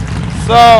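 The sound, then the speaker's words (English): A motorcycle brought out on stage as a prop idles with a low, grumbling rumble, then revs into a louder, steady harmonic whine for the last part of the short burst. “Got, I got a motorcycle on stage.”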